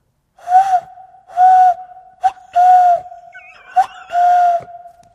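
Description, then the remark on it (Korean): A radio DJ mimics a cuckoo with breathy, hooting calls, several steady-pitched notes in an uneven rhythm separated by short gaps. The voice is fairly loud, with no talking alongside. “뻐꾸기 저도 소리 한번 내볼까요?”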